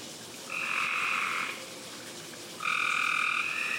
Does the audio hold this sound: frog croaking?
yes